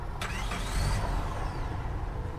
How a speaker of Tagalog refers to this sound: start mo na yung kotse ngayon.